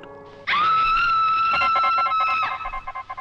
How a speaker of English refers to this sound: And then, in 1935, I met Miss Elsa Lanchester in the scream heard around the world.